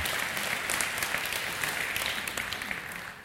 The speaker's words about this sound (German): Ja, da kann man mal in die Hände klatschen. Das ist wirklich wahr.